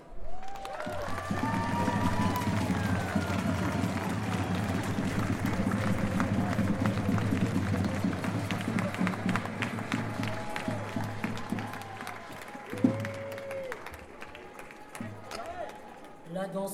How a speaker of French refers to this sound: Merci d'accueillir, s'il vous plaît, la chorale des Gralinettes cendrées. La chorale Made Gralin. Messieurs, dames, un tonnerre d'applaudissements.